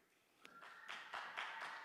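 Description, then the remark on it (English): Several audience members clap their hands in a quick, steady rhythm to choose answer B in a quiz, the sound soft, with no talking over it. “If you think it's B, I'd love for you to clap your hands.”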